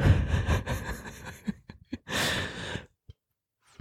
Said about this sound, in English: oh, sorry. That was gross. That was a burp.